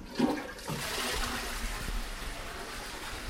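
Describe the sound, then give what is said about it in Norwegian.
A toilet flushes, a steady rushing gush of water filling the whole moment with broad hissing noise after a brief clunk at the start. “Eh, men for å få best mulig lyd, så har jeg liksom lyst til å stikke den under på toalettsida.”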